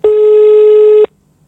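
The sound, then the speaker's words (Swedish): A single one-second burst of a telephone ringing tone on an outgoing call, a steady, loud electronic hum that cuts off abruptly into near silence, with no voices. “nu ringer vi.”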